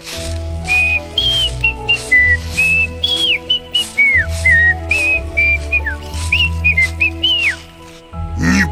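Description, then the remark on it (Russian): Someone whistles a casual, wandering tune for a hare walking along a road in a told tale, in short phrases with sliding, bending notes, fairly loud over a steady low background hum, with no talking. “Обрадовался волк, а заяц идет себе, посвистывает.”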